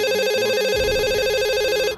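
A landline telephone rings in an apartment with a steady warbling electronic tone, loud, continuous for about two seconds with no one speaking.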